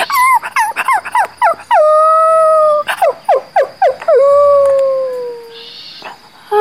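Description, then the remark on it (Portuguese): A dog named Alabama cries, yelping in quick high-pitched bursts that stretch into long, wavering whines sliding downward in pitch, loud and alone with no talking. “Ela começou a chorar.”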